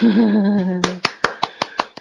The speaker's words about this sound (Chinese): 哎，鼓掌鼓掌鼓掌！